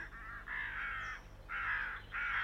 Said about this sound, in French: Dis nous son nom, dis-le criaient les corneilles, et dans leur ardeur, elles volèrent au fond du trou.